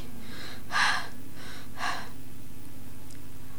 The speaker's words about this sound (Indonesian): Nafasku terengah-engah. Sambil berjongkok, aku mengatur nafas dan batuku.